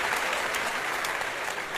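An audience applauds, a dense, steady patter of many hands clapping at an even loudness throughout the short stretch, with no voices standing out.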